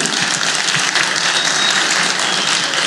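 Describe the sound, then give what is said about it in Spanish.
An audience at a Spanish-language church service applauds loudly and steadily for the Lord, a dense wash of many hands clapping at once that fills the whole moment with no voices heard over it. “Dáselo fuerte, Señor, si lo cree.”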